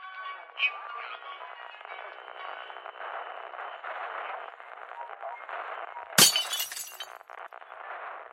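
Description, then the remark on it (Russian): A dish shatters with a single sharp, loud crash, followed by a brief scatter of tinkling shards, all over a steady murmuring background noise. “Ой, разбилась. Осколочки разлетелись.”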